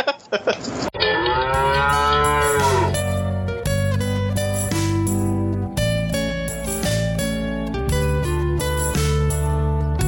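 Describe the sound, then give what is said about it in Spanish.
A loud, drawn-out cow moo with a bending, wavering pitch rings out near the start, followed by steady sustained tones that shift in pitch; no one speaks. “¡Ah, ah no, maldita vaca!”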